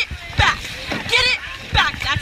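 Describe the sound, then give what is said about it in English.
Oars of a women's rowing crew dip and splash into the water of the Charles River in a few rhythmic strokes, fairly loud, with voices talking over the watery bursts. “That by putting the oar in the water, we are”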